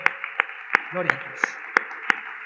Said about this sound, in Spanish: a quien también pido recibamos con un aplauso en el día de hoy.